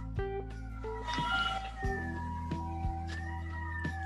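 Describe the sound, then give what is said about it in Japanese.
An emergency vehicle siren wails on Setagaya-dori, its two-tone pitch sliding as it passes, heard faintly over a steady low hum with a few soft knocks. “毎度の。毎度のおなじの、はい、ピーポーピーポーが、世田谷通りを。”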